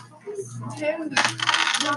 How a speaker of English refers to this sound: Roll both dice.